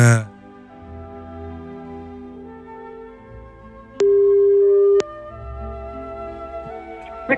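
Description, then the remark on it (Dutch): A telephone ringback tone sounds once as a number is called, a steady, mid-pitched beep lasting about a second, standing out loudly over a soft, sustained musical background. “Ik bel het nummer. Daar gaat hij.”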